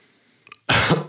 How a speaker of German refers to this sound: Da muss ich gleich direkt husten.